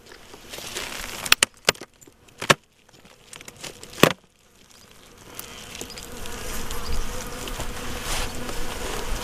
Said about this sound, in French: Donc là, ça c'est une ruche qui est, on va dire, qui est euh, faible. On voit que Et c'est faible. C'est très faible.